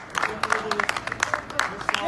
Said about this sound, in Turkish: Sizden onlar için bir alkış istiyorum. Alkış sesleri yankılandı yurtta. Burdurlu itfaiyeciler hastane önünden alkışladı sağlıkçıları belirli bir mesafeden.